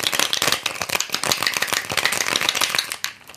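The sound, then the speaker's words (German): A cocktail shaker full of ice rattles hard and fast while mixing a cocktail that is then topped up with sparkling wine, a dense, bright clatter of ice hitting metal that carries on steadily for about three seconds before stopping abruptly. “Shake it, shake it, shake it.”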